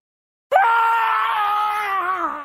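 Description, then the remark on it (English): A man lets out one long, loud scream of horror as he opens a package, held for about two seconds before his voice sags and breaks off, with silence just before it. “He opened the package, his hands trembling in anticipation, and then he began to scream.”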